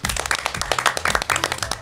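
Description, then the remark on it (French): Steady audience applause welcoming the finalists of the Eloquentia eloquence contest, many hands clapping in a dense, continuous patter with sharp individual claps standing out, fairly loud throughout and with no voices over it. “Je vous demande d'applaudir parce que c'est un plaisir pour moi de les recevoir”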